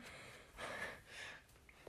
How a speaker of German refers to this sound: Ranziger Spülschwamm, ich bin ganz außer Atem,